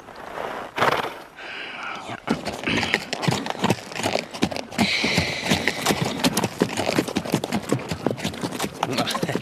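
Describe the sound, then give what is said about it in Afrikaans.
A horse trots along behind people with a steady, brisk clip-clop of hooves that carries on throughout, each hoof strike sharp and clear, while voices talk over the rhythm. “Hy wil agter ons aandraf.”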